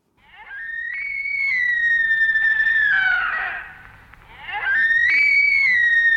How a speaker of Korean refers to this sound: 그래서 여러분들 그 사슴 소리가 좀 궁금하지 않으세요? 한번 들어볼 텐데 약간 좀 당황할 수 있어요. 한번 들어보세요.